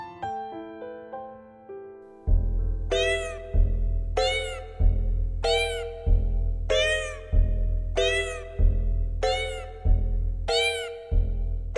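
A steady music bed opens with a plucked melody, then a bass beat enters and cat meows ring out in rhythm, roughly once per second, about eight bright, bending mews riding over the music.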